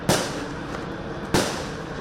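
gunshots

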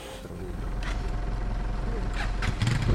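car engine

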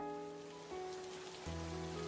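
rain falling

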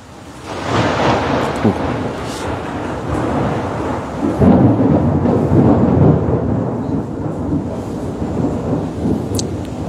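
rain

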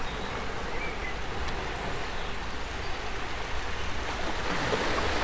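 ocean waves

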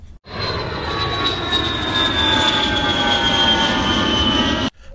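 airplane engine

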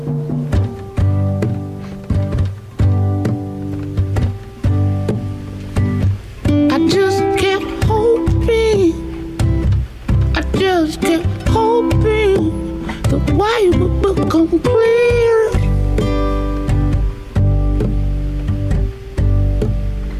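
song

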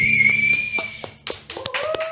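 applause

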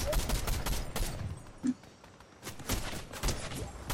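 video game gunfire

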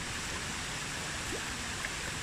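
flowing river water

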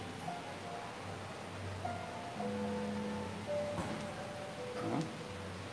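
rain falling

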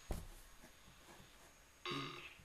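burp

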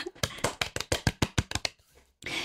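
audience applause

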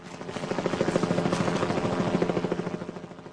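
helicopter hovering overhead

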